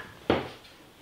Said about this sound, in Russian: То есть я в субботу дома вот так стул понести не могу.